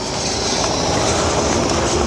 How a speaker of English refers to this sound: a car going by.